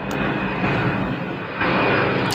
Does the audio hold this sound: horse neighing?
no